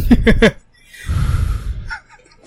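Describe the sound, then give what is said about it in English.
A computer fan blows a breathy, rushing whoosh into the microphone for about a second, intermittent rather than continuous and sounding like heavy breathing, after a few short voiced bursts at the start. “Your computer fan breathing into the microphone.”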